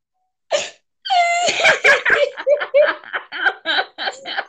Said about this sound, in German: Die Katze.